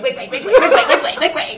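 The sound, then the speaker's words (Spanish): A voice mimics rain boots walking past to the bathroom with a quick string of repeated squeaky syllables, about eight in a steady bouncing rhythm, fairly loud with a giggly tone. “Ese es el sonido de tus botitas de lluvia.”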